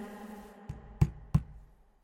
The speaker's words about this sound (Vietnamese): Uống xong một chén, cậu bé dùng đầu ngón tay gõ nhẹ lên bàn.